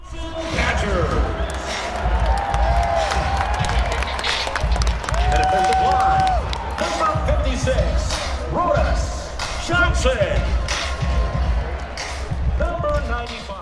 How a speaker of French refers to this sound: Et à la fin, les joueurs arrivent et le stade entre en transe.